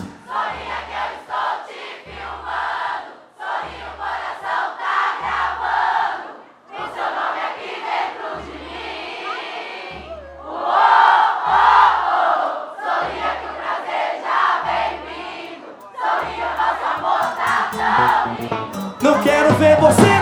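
A large crowd sings together loudly over a steady, thumping low beat, their massed voices swelling and dipping in phrases throughout, like a live concert audience carrying the song.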